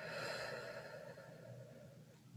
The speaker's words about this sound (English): Let's take a big breath in, full breath out.